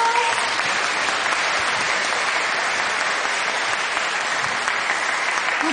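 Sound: audience applause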